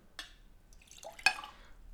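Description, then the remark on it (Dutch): Water sloshes and splashes briefly in a beer glass being rinsed, with a few bright, sharp clinks and drips; the loudest clink comes near the end, and no one speaks. “Ik zal het een klein beetje meer spoelen.”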